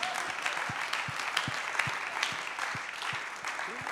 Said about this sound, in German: Deswegen möchte ich, dass ihr meinem älteren, besser aussehenden äh, Bruder einen Applaus gebt.